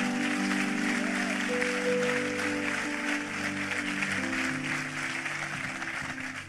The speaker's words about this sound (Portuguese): Vamos aplaudir a Ele.